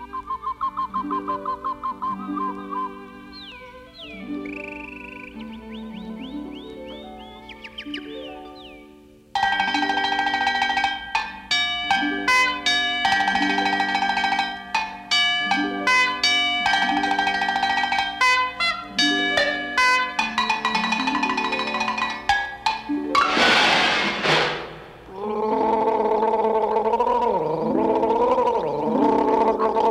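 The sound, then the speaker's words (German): An arrangement of Rossini's William Tell Overture performed entirely with household noises and noise instruments: whistly, bubbly gargling tones carry the melody at first, then loud clanging pots and pans join in with a busy, rhythmic clatter. “Eine rossini overtüre nämlich Wilhelm Tell, eine Bearbeitung davon, die nur auf Töpfen, Pfannen, irgendwelchen Geräuschinstrumenten gespielt wird, die gegurgelt wird, die also quasi ausschließlich aus irgendwelchen Geräuschen ähm, besteht.”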